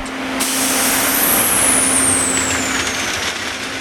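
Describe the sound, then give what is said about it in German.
A yellow track-laying train nicknamed the Büffel, tearing out old rails and sleepers and laying new ones on a railway embankment in shimmering heat, lets out a loud, sustained hiss of escaping air, like an air brake blowing off, with a steady low mechanical hum underneath and a high whine that slowly falls in pitch. “Langsam schiebt sich der Büffel durch die Ebene. Die Luft flimmert vor Hitze. Das Ungetüm schnaubt.”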